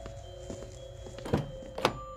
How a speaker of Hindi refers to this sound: दरवाज़ा खुला और फिर बंद हो गया